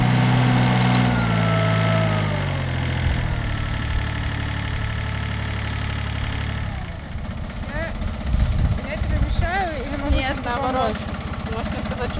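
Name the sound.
small tractor engine running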